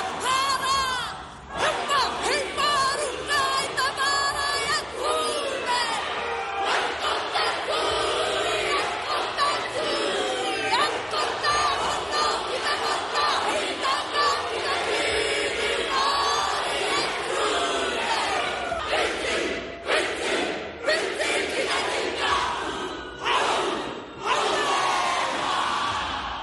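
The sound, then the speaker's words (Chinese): A Maori haka war chant performed by a Maori member of parliament together with other Maori MPs: loud, rhythmic group shouting and bellowed calls delivered in forceful bursts, with several voices joining in and crowd noise beneath throughout. “那我解释一下毛利战舞是什么，就是他们对来访部落的传统欢迎方式，那同时也是激励战士在战战斗前的一种方式。”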